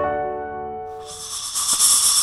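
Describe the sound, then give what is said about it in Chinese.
A snake hisses to protect itself: a sharp, airy, high-pitched rush of breath that swells and holds for over a second, following a brief sustained tonal note at the start. “这是蛇为了保护自己会制造出来的声音。大多数常见的声音都是嘶嘶嘶的声音”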